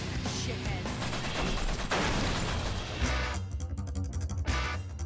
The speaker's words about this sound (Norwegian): I løpet av spillet blir du introdusert til alle hennes akrobatiske ferdigheter, og snart løper du oppover vegger, svinger deg fra stolper, hopper og sklir bortover bakken, alt mens du fyrer løs en mengde skudd.